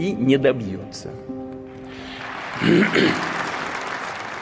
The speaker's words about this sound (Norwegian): Det klappes i det store lokalet kalt Manesjen i Moskva. Hele den russiske eliten er samlet for å høre Vladimir Putins tale om Russlands tilstand ett år etter at krigen mot Ukraina startet.